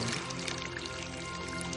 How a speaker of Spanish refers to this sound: Vierte el agua del ánfora en una pileta.